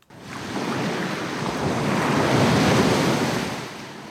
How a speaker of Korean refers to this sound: 아, 시원한 파도 소리네요. 그렇죠? 네, 보물 소리 한번 다시 한번 들어볼까요? 시원한 파도 소리.